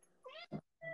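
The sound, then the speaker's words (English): A cat trying to get into a basement meows in a short burst of harmonic, wavering cries, a brief low thump in the middle, then another rising meow starting just before the end. “It's not a mouse. That's a cat.”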